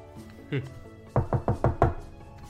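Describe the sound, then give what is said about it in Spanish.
Five quick, evenly spaced knocks on a door, firm, arriving in a steady burst after a brief softer sound, made by someone outside checking whether those inside are awake. “Em, que está afuera, despierta y va a tocarles la puerta para saber si están despiertos los de adentro.”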